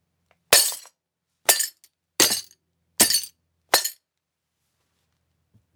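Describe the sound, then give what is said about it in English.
A hammer smashes a glass mason jar inside a tote bag in a cardboard box in five sharp, crunching blows, each a bright burst of breaking glass with a tinkling tail, spaced about a second apart. “I put the mason jar in the tote bag, put it all in a cardboard box, and just smashed it with a did hammer.”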